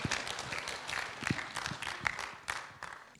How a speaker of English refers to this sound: Give him a big clap, would you